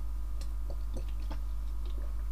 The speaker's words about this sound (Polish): Dobra, kolejny łyk wody.